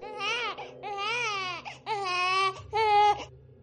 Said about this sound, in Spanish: Ese momento cuando Lian debe ir a la farmacia y dejar solo al muñeco, es entonces que tú ves a Sean que comienza a escuchar el quejido de un bebé en la planta alta.